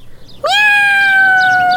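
One long, drawn-out cat meow, loud, holding a steady tone that sags slightly in pitch toward the end. Nothing else sounds around it and no one talks.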